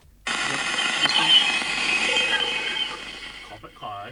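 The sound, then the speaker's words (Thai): A sonified space recording of Ganymede, the largest moon of Jupiter: a dense, eerie electronic hiss with warbling tones runs steadily for about three seconds, then a voice briefly speaks at the end. “อันนี้คือเสียงของดวงจันทร์ที่ใหญ่ที่สุดของดาวพฤหัสไว้พี่ มันชื่อว่า ดวงจันทร์แกนิมีดอันนี้ผมไม่แน่ใจว่าอ่านถูกไหมนะครับ”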